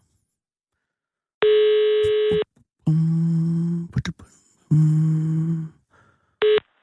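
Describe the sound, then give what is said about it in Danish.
Telephone ringing tone on an outgoing call to a kiosk: several loud, steady electronic tone bursts about a second each, separated by short pauses, with a brief murmured voice between them. “Jeg ved Jack jo ikke, vi ringer, så det kan også være, han har travlt med andre.”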